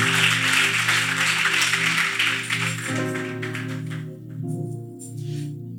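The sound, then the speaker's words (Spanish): An audience at a church service claps steadily for the Lord over sustained keyboard chords, the dense applause fading out after about three seconds while the chords keep playing alone. “Alguien dele un fuerte aplauso al Señor y tome asiento.”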